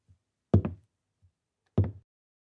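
Hard-soled footsteps tap on a hard floor and then come to a stop: two sharp, crisp strikes, each with a quick double click, separated by faint, soft low thuds. No one speaks.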